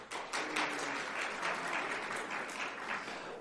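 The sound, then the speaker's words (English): A crowd claps steadily for about three seconds in a quick survey of who likes the Pittsburgh donut, a dense, even patter of many hands with no voices, holding at a moderate level before easing slightly near the end. “Clap your hands if you like the Pittsburgh.”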